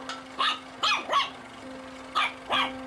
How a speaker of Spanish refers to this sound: Perrito.